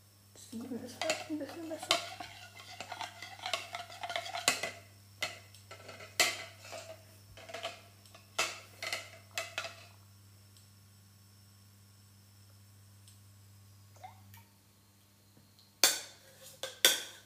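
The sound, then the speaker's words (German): Metal kitchenware clinks and scrapes in a busy, irregular run of sharp knocks as a warm frying pan is tilted slightly so the liquid in it spreads, over a steady low hum that stops near the end before a few last clatters. “Okay, die Pfanne ist jetzt warm. Ich kipp die nochmal so leicht, damit es sich verteilt.”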